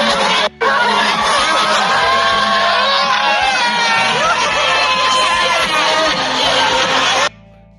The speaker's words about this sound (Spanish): por suerte esta amiga grabó un videito y bueno, por lo menos van a sentir el audio de ese grito desenfrenado que pegué.